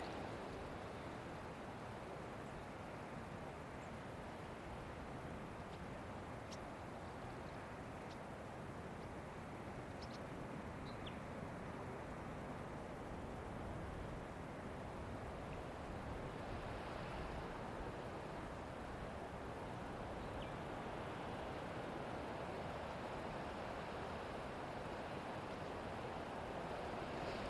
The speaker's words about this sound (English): Feel stable as the winds pick up. Feel the cocoon of the earth as the water and wind wrap around you.